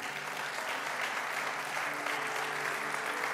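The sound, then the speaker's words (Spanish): An audience applauds the Lord, steadily, a dense, even wash of many hands clapping that holds at a constant loudness for the whole stretch, with no voices standing out above it. “Ahora sí puede dar un aplauso al Señor.”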